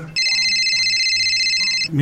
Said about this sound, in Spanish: A ver, voy a contestar porque está sonando el teléfono.